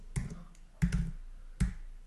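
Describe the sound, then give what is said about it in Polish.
Three heavy, clacking keystrokes on a computer keyboard, spaced unevenly about a second apart, each with a dull thud underneath, fairly loud with nothing else going on. “O, o słyszycie jak miłość klawiaturę.”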